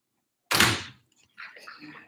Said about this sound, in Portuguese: Eu vou fechar as portas aqui para não atrapalhar os pesquisadores.